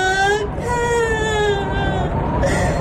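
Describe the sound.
A bear character's voice cries in a sustained, wavering wail with a high, tremulous pitch, sobbing continuously for a few seconds with a brief catch partway through.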